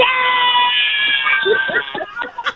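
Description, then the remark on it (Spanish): A woman imitates a cat's meow in a long, drawn-out, high-pitched whine, loud, trailing off into a few short yowling sounds. “pero sí, pero sí, pero sí habla pero sí habla como una gata, ¿eh?”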